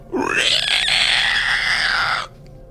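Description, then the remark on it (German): A person vocally imitates the ugly, loud squeal of a woman-like creature as she lashes out: one harsh, piercing shriek that rises quickly and holds for about two seconds before cutting off, strident. “quietscht sie hässlich laut.”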